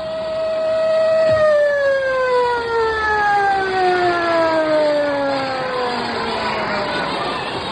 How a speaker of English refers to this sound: The siren moaned to stillness, but there was no peace.